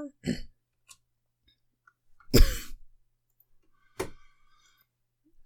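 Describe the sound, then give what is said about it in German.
Three separate coughs with pauses between them: a short one, then a loud, harsh burst, then a final sharper cough. No talking in between. “sorry, da musste ich jetzt erstmal husten.”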